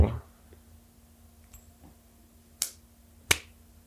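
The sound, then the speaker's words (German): A coin is flicked with a faint ping to let it decide something, then lands with two sharp clinks about a second apart against a quiet hum. “Ähm, wir lassen die Münze entscheiden.”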